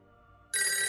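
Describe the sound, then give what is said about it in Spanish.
A telephone bell suddenly starts ringing loudly, a bright metallic trill cutting in after a quieter steady electronic tone, with no one talking. “Eh, fíjate, sonó el teléfono, pero no se escuchó.”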